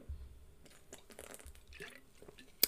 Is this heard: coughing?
no